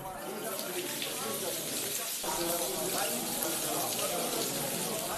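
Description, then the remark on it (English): Steady, continuous hiss of running shower water in a prison at dawn, at a constant level, with faint muffled voices blending in beneath the spray during the second half. “That's when we'll start taking shower.”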